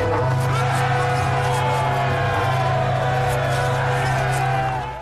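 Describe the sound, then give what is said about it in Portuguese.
A large army of men roaring a battle cry together with the full force of their lungs on command, loud and sustained for several seconds, with a steady low droning tone underneath the massed voices; a scene from the TV series Terra Prometida aired by Rede Record, based on the Book of Joshua, chapter 6. “Gritem! Gritem com toda a força dos seus pulmões!”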